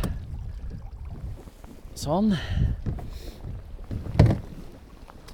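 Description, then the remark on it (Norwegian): Wind and lapping water in a sunny bay with onshore wind, then a rising and falling metallic creak and a solid clunk as the outboard motor is tilted up on a 14-foot Pioner Maxi fishing boat being moored, with a brief spoken word. “Åh, ja, jeg må tilte motoren.”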